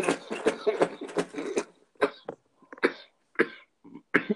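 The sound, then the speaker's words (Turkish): A run of harsh coughs in quick bursts, then a pause and several more scattered coughs with some throat clearing, loud and raspy with no talking. “Bak duyuyorsunuz, duyuyorsunuz işte. Ciğer kalmamış.”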